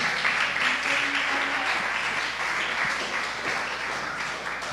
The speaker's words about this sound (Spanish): Muy bien, tomen asiento, por favor. Tomen asiento. Un aplauso para los valientes.